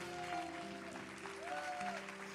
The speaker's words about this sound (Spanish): Alguien valiente que le dé un aplauso al Señor.